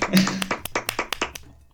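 A short burst of hand clapping, roughly half a dozen sharp, crisp claps in an uneven rhythm, moderately loud, ending after about a second.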